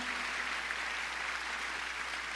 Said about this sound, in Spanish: Alguien diga amén. Alguien diga amén. Vamos a dar un aplauso para el Señor. Él es un Dios de restauración, de perdón.